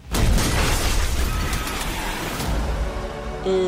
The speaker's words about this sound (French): Et sa dernière sœur, euh, la sœur de Molly qui s'appelle Rita, elle est tuée avec son mari Bill en 1923 dans l'explosion de leur maison par une bombe à Fairfax.